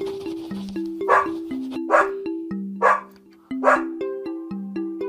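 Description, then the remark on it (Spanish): A dog barks four times at a steady pace, clear, over light plucked background music with no one talking. “Los perros. ¿Los perros hablan?”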